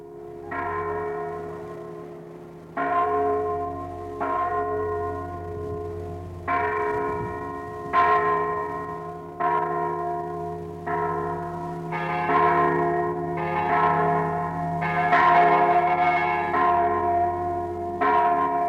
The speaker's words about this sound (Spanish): parece que oye, porque al rato suenan las campanas como contestación al homenaje.